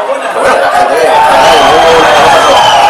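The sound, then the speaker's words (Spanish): A loud, dense roar of a stadium crowd, sustained throughout with shouts and cheers rising out of the mass of voices, heard through an opened door during a match as players tussle with each other. “ahora el jaleo, están dándose cariñitos, Alberto Poguaní, José Antonio, y eh, José Enrique, Gobis que señala con el dedo a José Enrique”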